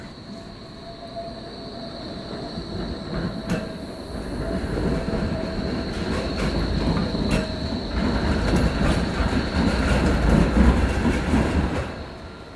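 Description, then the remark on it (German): A tram rumbles steadily past as it circles Bersarinplatz (Basarienplatz) in Friedrichshain, with a continuous rolling drone, clacking wheels and a faint high squeal, growing slightly louder toward the end amid open city ambience, with no one speaking. “Die Straßenbahn umrundet den Basarienplatz.”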